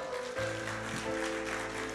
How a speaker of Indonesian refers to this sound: Tepuk tangan dulu bagi Tuhan Yesus. Haleluya. Tepuk tangan yang meriah bagi Tuhan.